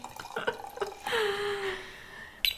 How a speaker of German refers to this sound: Magst du dir ein bisschen Wein einschenken? Dann können wir auch so ein bisschen ähm, Soundeffekte reinbringen.